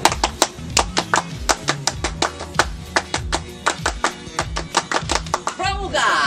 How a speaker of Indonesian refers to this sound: Oke mungkin sebelum ditutup uh, baiknya kita dua kali tepuk pramuka.